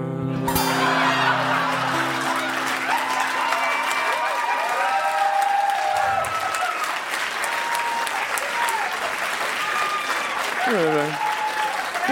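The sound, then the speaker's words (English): A large audience claps steadily and loudly for the whole stretch, a dense, sustained wash of applause with scattered voices and shouts rising through it. “A really good crowd.”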